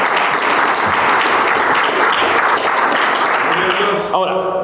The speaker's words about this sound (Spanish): El aplauso es para Dios, no es para mí.